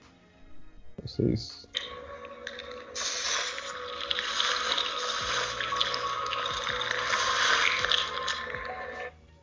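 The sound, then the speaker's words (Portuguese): Eerie background ambience from the horror video game Darkwood, played without the player's voice: a dense, wet hissing and crackling texture, almost like chewing, over low droning tones that swell and fade, preceded by a few brief thuds. “O som de fundo é horripilante. Parece que alguém tá comendo, daí fica diminuindo o som e fica aumentando nesses graves.”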